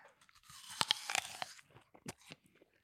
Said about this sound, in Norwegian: Det er deilig å høre på liksom slafsing. Litt slafs her på halen.